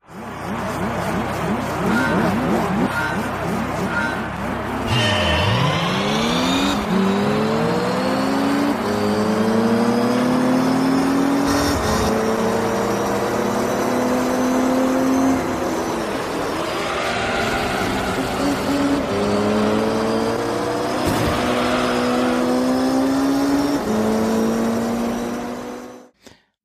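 Racing video game car engines roar and rev continuously, with rising and falling pitch sweeps as gears shift, and bursts of tire skidding, loud throughout with no talking.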